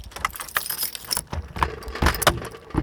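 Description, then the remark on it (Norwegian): Keys jangle and clink in a series of bright, metallic rattles with a few sharper clicks, like a key being worked in a lock, as the door of the Bishop of Oslo's new micro house by Romsås church in Oslo is opened, with no voices over them. “Da åpner vi døra.”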